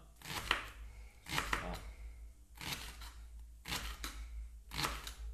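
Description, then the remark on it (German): A knife chops steadily on a board in a run of crisp strokes, grouped in short bursts with brief pauses, slicing a palm-length piece of soup-green vegetable, just under 50 grams, into fine rings. “Und da schneidest du jetzt feine Ringe raus.”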